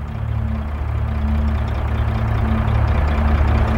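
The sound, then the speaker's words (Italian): A black van's engine drones with a deep, steady rumble and low humming tones, growing louder as it approaches from the east in the distance at about 30 km/h, at a damp, foggy, icy dawn on 15 October 1917, with no voices over it. “È un furgone, guardatelo, eccolo che arriva.”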